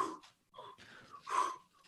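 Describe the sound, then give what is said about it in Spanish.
A person imitates heavy, muffled breathing into a face mask that fogs up 3D glasses in an IMAX 3D cinema, with three or four breathy huffs and wheezy exhales in a rough rhythm, fairly loud, the last one strongest. “los lentes, el cubrebocas genera mucho vaho. Y entonces está respirando y hace”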